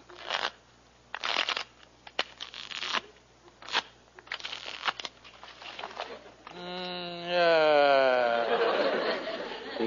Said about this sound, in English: Now, I'll just shuffle the cards here.